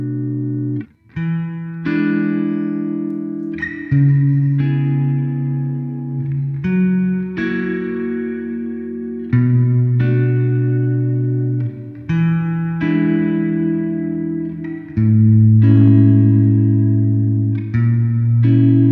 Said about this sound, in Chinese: 接下来呢，再试一种大厅混响。吼，这个大厅混响呢，听上去它的空间就非常的大了，扩散很充分，而且呢，延音也很明显，感觉呢是一个边界不太明显的巨大的空间。